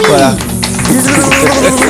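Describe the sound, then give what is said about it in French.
Several voices make a loud, sustained buzzing hum together, imitating a swarm of bees in place of applause to welcome a guest. Their overlapping pitches waver and continue without a break. “Vous pouvez bourdonner si vous voulez.”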